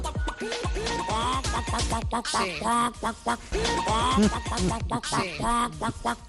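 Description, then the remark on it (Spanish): A singer imitates a chicken in Israel's winning song, clucking and squawking in quick rhythmic bursts with sharp pitch jumps, repeated in a patterned musical phrase, loud over a steady backing. “Cuando hemos escuchado el coco coco coco de la de Israel, como la coco coco de Israel, ¿eh?”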